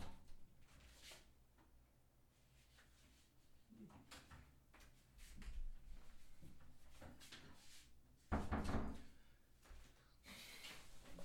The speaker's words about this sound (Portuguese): Vamos tirar ela aqui do quarto. Peraí, que vamos abrir a porta pra ela assim.